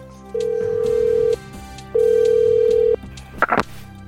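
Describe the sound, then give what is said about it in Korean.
A phone ringback tone during an outgoing call rings twice as long, steady electronic tones with a pause between, followed by a brief rustle or click as the call connects. “거절하기 미안해서 알려줬지만 이상하게 찜찜한 마음을 지울 수 없어 직접 전화를 걸어봤는데요.”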